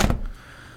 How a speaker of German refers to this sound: So, Tür zu.